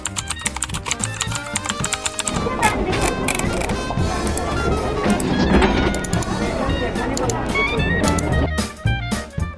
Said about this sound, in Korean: 오랜만에 듣는 시장의 풍경 소리였습니다. 오늘은 지갑을 열게 만드는 소리 들려드렸는데요.